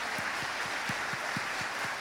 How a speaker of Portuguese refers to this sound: Você pode bater uma salva de palmas para o Senhor.